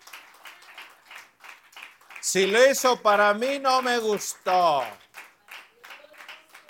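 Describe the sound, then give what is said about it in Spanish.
An audience applauds for the Lord with a dense, steady patter of clapping that runs throughout, while a loud, strained voice calls out over the middle of it. “Pero el aplauso no es para mí.”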